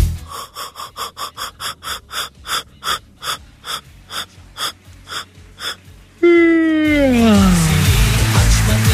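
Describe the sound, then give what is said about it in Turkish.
A run of quick, rhythmic breathy gasps gives way to a loud, drawn-out human yawn whose voice slides downward in pitch, with no talking. “Ben esnersem sizlere esnetirim.”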